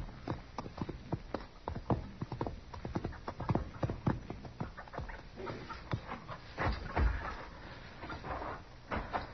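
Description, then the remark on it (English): Horse hooves clip-clop in a steady, fairly quick rhythm, each hoofbeat a sharp knock on hard ground, continuing throughout with some faint breathy noise and no talking. “Put the horse away and get in the house.”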